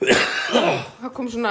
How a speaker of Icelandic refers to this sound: kom svona, eh? já, kom svona stuna fyrir hósta